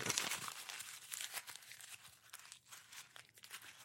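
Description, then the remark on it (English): A clean white sheet of paper is crumpled up, a dense run of crackling, crinkling bursts that continues for several seconds with no one speaking. “and we wad it all up and make it a mess.”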